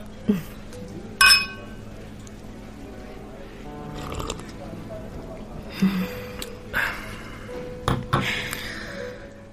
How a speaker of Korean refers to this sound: 우리 건배 한번 할까요? 10년 만에 만났는데.